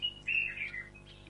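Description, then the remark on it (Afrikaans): A bulbul calls outside, where oranges have just been set out for the birds, in a quick run of bright, liquid whistled notes, moderately quiet, with no voices over it. “'n tip tot wat hier so baie gelukkig is oor lemoene wat ek nou net vir hulle buite gesit het.”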